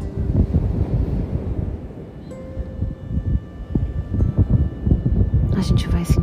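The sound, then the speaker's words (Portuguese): Strong, gusty wind at a beach rumbles and buffets steadily throughout, with a low roar like surf in the background and a faint sustained tone drifting beneath it. “sentir essa brisa, guardar essa paz no coração, esse vento, esse calor no coração, esse amor.”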